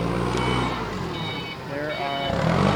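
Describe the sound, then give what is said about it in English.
A large Imperial Beverage delivery truck, carrying about 203 barrels of beer for a winter beer festival, idles and rumbles while high, steady electronic beeps repeat as it backs up, with faint voices in the background, on a cold February day just after rain. “I'm waiting for a truck from Imperial Beverage to show up to make a delivery about eight hours before the start of the Winter Beer Festival.”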